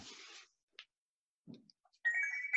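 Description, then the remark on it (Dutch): A roly-poly tumbler toy chiming: after a brief rustle and a couple of soft knocks, a bright, sustained ringing tone swells up and holds, clear and fairly loud, with no voices. “het is een tuimelaartje.”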